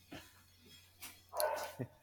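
A person sneezes once, a sharp, breathy burst after a couple of faint intakes, fairly close and loud against an otherwise quiet background with a low steady hum.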